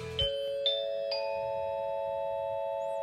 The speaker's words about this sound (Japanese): はい、タコ町の気象情報をお伝えしますこのねピンポンパンポンをねあのー、忘れておりました 失礼いたしました